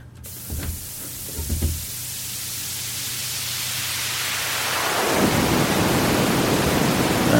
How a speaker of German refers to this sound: immer noch ein leichtes Gewitter drin.